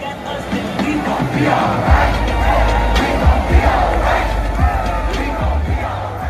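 A large protest crowd chants a song together, many voices blending into a loud, steady roar with rhythmic swells and scattered shouts over a low rumble throughout.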